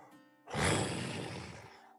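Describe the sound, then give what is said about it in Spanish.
A voice imitates a shopkeeper's whistle that sounds like a roar: one loud, breathy, rasping blast lasting just over a second, with faint steady tones humming before and after. “como un silbido, pero suena como un rugido”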